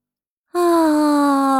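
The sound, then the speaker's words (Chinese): A big, drawn-out voiced yawn, as the little pigs wake and get up, begins after a moment of silence, a loud, steady moaning tone whose pitch sags slightly as it carries on without a break. “小猪们打着大大的哈欠爬了起来。”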